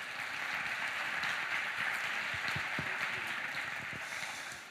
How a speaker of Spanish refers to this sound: También está con nosotros un actor muy importante de la escena en eh, Colombia de la televisión nacional, se llama Rafael Novoa, está incursionando en la internet con Rafael Novoa sin filtros. Un aplauso para Rafael.